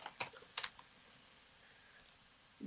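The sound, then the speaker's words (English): A short flurry of clacky computer keyboard keystrokes as someone looks something up on a computer, about half a dozen quick taps in the first second, then near silence with a faint low thump at the end. “Is that you oh, clanking oh, on the keyboard?”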